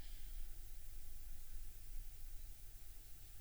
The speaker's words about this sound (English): And everything goes dark. And all you hear is TV static.